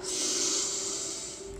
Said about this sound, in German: Wir atmen immer durch die Nase ein, halten dann kurz an und dann kannst du gerne laut durch den Mund ausatmen. Also wir atmen durch die Nase ein,